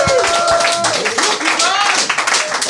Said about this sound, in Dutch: Ja, mijn vader is hier applaus voor mijn vader.